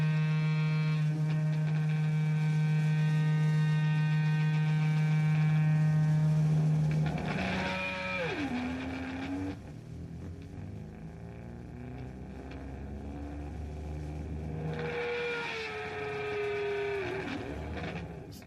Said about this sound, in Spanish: sin pretender ser irreverente, ni muchísimo menos, pero vamos a saltarnos un poquito de rato de distorsión y acople